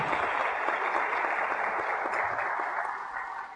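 Steady, dense applause from an audience for a teacher being introduced on a gala programme, a continuous wash of many hands clapping at a fairly even level, tapering slightly toward the end, with no voices over it.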